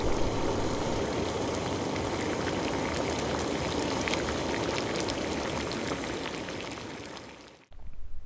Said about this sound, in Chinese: 我从旁边的水桶取水，倒入那只大水壶里，再将水壶放在炉子上。很快，水壶就会开始唱歌了。